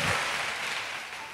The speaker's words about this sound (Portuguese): Vamos dar um aplauso para o nosso tecladista.